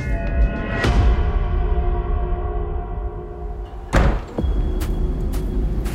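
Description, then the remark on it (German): A wooden door of Timberline Lodge is flung open with a loud bang that rings out briefly as someone storms outside, followed a few seconds later by a second heavy thud over a steady low rumble. “stürmt durch die hölzerne Tür der Timberline Lodge ins Freie und geht mit großen Schritten über den Parkplatz.”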